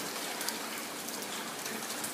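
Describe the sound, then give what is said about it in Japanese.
Steady rain, falling continuously since morning, hisses in a dense, even wash onto hydrangeas in front of the Akebono-so apartment building, with faint scattered drops pattering on a surface throughout; no voices, moderate volume. “その日は朝から雨が降り続いていて”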